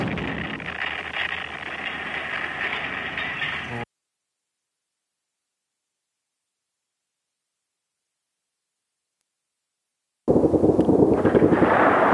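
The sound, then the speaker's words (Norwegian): Loud, dense bursts of machine-gun fire and explosions crackle at night for a few seconds, then cut to silence before another heavy, roaring volley returns at the end. No one speaks. “Også i natt har det vært mange eksplosjoner, men også en del skyting med maskingevær.”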